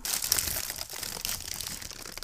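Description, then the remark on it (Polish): Someone takes a first bite of a second doughnut, one with icing, giving a steady crinkly, crackling crunch that lasts a couple of seconds with no talking. “Dobra, czas na pierwszego gryza.”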